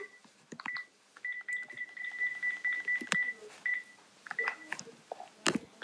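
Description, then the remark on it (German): A rapid series of short electronic keypad tones as a phone number is dialed to call a neighbor, with handling clicks and taps between them; no one speaks. “Ähm, jetzt rufe ich mal meinen Nachbarn.”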